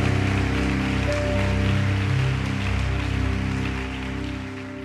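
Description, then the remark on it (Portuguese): A church audience applauds loudly for the name of God, a dense, steady wash of many hands clapping for about five seconds, with sustained low musical tones humming beneath it and no one speaking. “Vamos aplaudir bem alto o nome dele então.”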